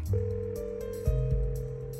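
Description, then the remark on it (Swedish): A steady electronic telephone tone hums on its own as someone makes call after call, holding a constant pitch before shifting to a slightly different tone partway through, with no voices. “Anna ringer samtal efter samtal”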